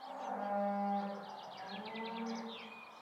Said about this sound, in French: On coupait avec le, couteau à pain et les bruits de la campagne, de la ferme, euh, les vaches, tout ça.